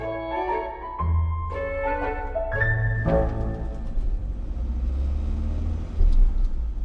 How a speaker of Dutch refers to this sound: Dit is het geluid van mijn bus, want eh, een van de vluchtelingen heeft gevraagd of ik nog even langs wilde komen.